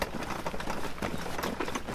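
A handcart (Bollerwagen) rumbles down a forest track, accompanied by educators and a children's group heading to the Mühlental; its wheels give a steady, continuous rattle and crunch with irregular clattering bumps throughout, fairly loud and with no voices.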